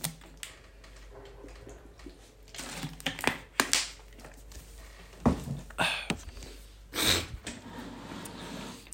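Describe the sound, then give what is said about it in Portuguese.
Someone takes a sip of water: a quiet run of short clicks, soft gulps and breathy bursts spread unevenly over several seconds, with no talking. “Já agora vou dar aqui um gol de água.”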